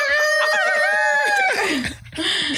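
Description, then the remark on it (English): A person's voice imitates a rooster crowing, one long strained, wavering call that holds steady, then slides downward and breaks off into a raspy, laughing sputter, loud. “You're sounding like a freaking rooster now.”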